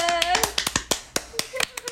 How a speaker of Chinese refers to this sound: 掌声